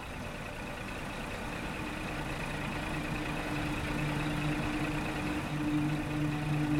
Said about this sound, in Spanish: Parecía que ya no iba a pasar un autobús, pero por fin apareció uno.